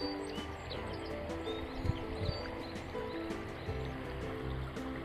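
A babbling river stream gurgles steadily with a soft, continuous wash of water, with faint bird chirps scattered over it and no voices, heard from the riverside during a morning walk on a warm day that is not especially fine.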